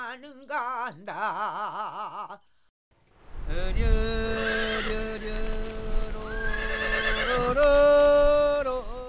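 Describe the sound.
A pony lets out a quavering, fairly loud neigh. After a brief pause, a voice begins a long, drawn-out chant-like song that carries on to the end. This is the field-treading song of the Hallim area of Jeju Island, Korea, where ponies tread the fields so seeds are not blown away by Jeju's strong winds.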